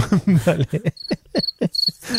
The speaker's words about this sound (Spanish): si antes eh, metes los aplausos, por favor, meta aquí un grillo.